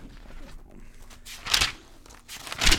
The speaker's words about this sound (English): Yes, the page turn is back.